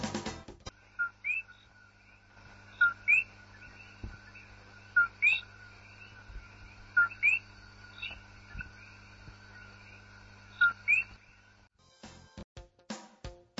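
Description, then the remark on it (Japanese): A bird of an invasive species listed among the IUCN's 100 worst invasive alien species gives repeated short whistled calls with a bright, electronic, beeping quality, sounding in little bursts roughly every two seconds over a quiet background, with no talking. “どう聞こえましたかいや、これすごい可愛い声じゃないですかなんでしょう、笛の音のような、でも、まるで宇宙船の中にいるような、R2D2 を思い出すような、そんな音”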